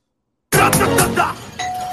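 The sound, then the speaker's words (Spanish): A doorbell rings after a brief silence, a bright, fairly loud electronic chime that ends on a sustained steady tone, with no voices. “Con timbre, con cámara y todo.”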